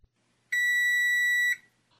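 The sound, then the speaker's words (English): A single steady electronic buzz from an old-school stove timer, loud, holding one bright, harsh tone for about a second before cutting off abruptly. No one talks over it. “My brother started saying buzzer because he thought it sounded like a stove timer that buzzes.”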